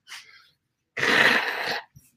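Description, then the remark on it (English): A single loud sneeze caused by allergies: a quick sharp intake of breath, a brief pause, then a forceful, explosive burst that trails off, with no talking. “sorry allergies guys”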